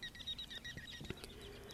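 A ruddy turnstone gives a quick run of short, high chattering notes, repeated rapidly for about a second, then trailing off into faint background noise.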